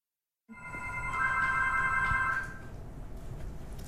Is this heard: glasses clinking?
no